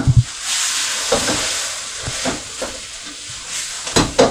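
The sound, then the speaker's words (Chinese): Chopped scallions, added to stir-fried instant noodles just before they come off the heat, sizzle in a frying pan, a steady bright hiss of hot oil broken by irregular small pops and crackles, with no one speaking. “好啦，最后要起锅前呢，葱花卸下去。”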